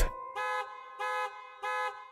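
A car horn honks three times in a steady rhythm, each blast short, loud and bright, with brief silences between them and no voices present.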